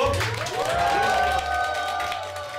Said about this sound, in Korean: 자, 박수.